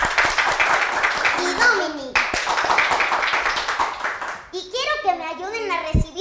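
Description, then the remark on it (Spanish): An audience claps in a dense, steady burst for about four seconds, with children's voices mixed in, welcoming a guest on the children's program Taller de Sexualidad Infantil; then the applause fades out and a child begins talking. “con un fuerte aplauso a nuestro amigo”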